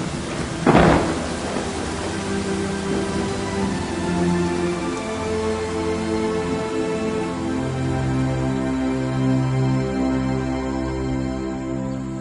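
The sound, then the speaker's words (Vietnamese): Heavy rain pours steadily throughout, opening with a sharp, loud crack of thunder near the start, while low sustained musical tones hum beneath the downpour. “Mưa chắc còn dài Thôi Dầm mình về”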